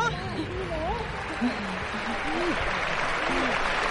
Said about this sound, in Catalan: I entrarà un altre Brochanski que es va lesionar a la pista del Venècia eh? i per això hi ha l'ovació.